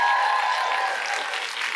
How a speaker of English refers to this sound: So, can I get you to buy in? Can you give me a round of applause if you're willing to show up and play big?